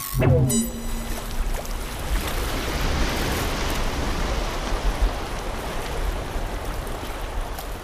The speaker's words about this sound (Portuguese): Só de escutar o som do mar, a alma já relaxa.